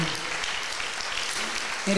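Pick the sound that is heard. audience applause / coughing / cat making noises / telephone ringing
audience applause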